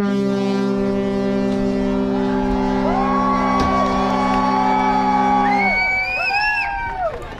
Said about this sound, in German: Auf beiden Seiten braust Jubel auf. Crew und Passagiere hüpfen auf unserem Helideck auf und ab. Wir schwenken Trikolore-Fahnen, lachen wie Kinder, sind ausgelassen, auch auf der Brücke strahlende Gesichter. Drüben passiert das Gleiche.